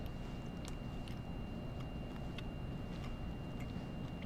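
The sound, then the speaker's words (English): Quiet chewing of a piece of moist sweet jalapeno beef and turkey jerky on the left side of the mouth: soft, irregular wet crunches and clicks spaced about half a second apart, over a low steady rumble, with no talking. “Usually I go for the big piece, but I know I'm going to be chewing a lot on my left side.”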